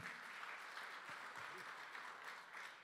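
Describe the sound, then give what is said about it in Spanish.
A church audience applauds the Lord during a sermon, a dense, continuous wash of many hands clapping at once, with scattered voices calling out underneath the sustained applause. “Dale otro aplauso fuerte al Señor.”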